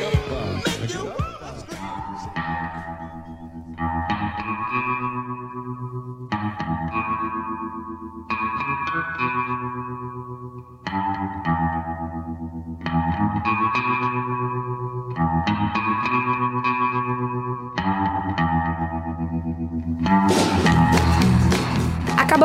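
A bass-led song from the soundtrack of The Social Network, played by an American bassist and producer with a nine-piece orchestra, its effect-heavy, distorted chords repeating in short bursts every few seconds. The music is loud, building fuller at the end, with no talking.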